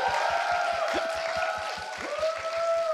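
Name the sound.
audience applause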